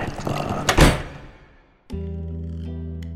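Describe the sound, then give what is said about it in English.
A heavy door, yanked shut by its handle, slams with a deep thud that rumbles away into quiet, then a sudden low, sustained musical drone swells in. “She snatched at the door handle and yanked it toward her, slamming the door shut just as the carrion crawler shot forward to attack.”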